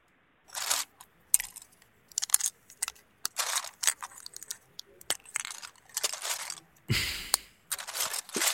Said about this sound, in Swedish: Det är som ett barn som gräver i en legohög helt enkelt.